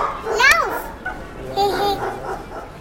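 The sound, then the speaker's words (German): A dog lets out a sharp, high yelping bark, followed a moment later by a second, shorter whining bark, on a busy town street near the market square on the way to the cathedral, with faint voices. “Vorsicht, April! Dort ist ein Hund!”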